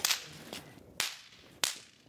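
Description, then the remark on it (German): Four sharp, bright snap pops (Knallerbsen) crack out one after another at uneven intervals as they are thrown onto the floor, each a quick explosive burst that fades fast. No one speaks. “Ich nehme die und schmeißt die auf den Boden. Und dann knallt sie, macht ein kleiner Funken.”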